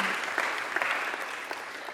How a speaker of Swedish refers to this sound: Han kan få en applåd.